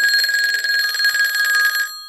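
A telephone rings with a bright, trilling electronic bell, sounding continuously and loudly for nearly two seconds before cutting off abruptly. No voices accompany it.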